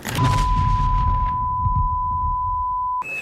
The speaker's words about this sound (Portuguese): Ah, é aqui, ó. O alarme.